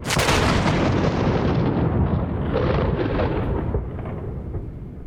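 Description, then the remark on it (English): A loud, booming thunderclap rolls on for several seconds, a dense crackling rumble that fills the space and slowly loses its higher edge as it fades. No voices are heard. “Christ, I've never heard a thunderclap like that.”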